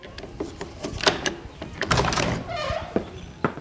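The door of a room is opened: a couple of sharp latch clicks and rattles, then a short creaking swing ending in a soft thud. No one speaks.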